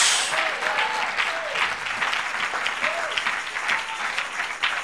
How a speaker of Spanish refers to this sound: A ver, démosle un aplauso al Señor. Gloria a Dios.